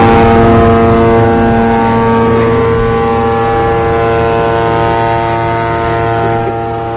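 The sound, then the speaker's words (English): A boat passing on a river by a waterfront sounds its deep horn, loud and steady for several seconds, holding one droning chord before easing off slightly at the end; no one speaks. “So there's a, a, a river going by him, and a boat goes by while he's speaking.”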